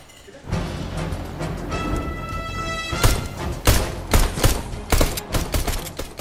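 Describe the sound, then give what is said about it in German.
Video game gunfire from a man playing a game in his room: a rapid series of sharp, loud shots bursting in irregular volleys, preceded by a brief electronic tonal hum, with a steady low background rumble throughout. “Der Bernhard Stern ist in seinem Zimmer am Gamen.”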